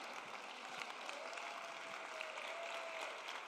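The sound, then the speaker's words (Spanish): An audience applauds steadily in praise of the Lord's name, a dense wash of many hands clapping at once from a sizable group, sustained without a break and reverberant. “Si lo crees, dile, Señor, yo lo creo, aplaude su nombre.”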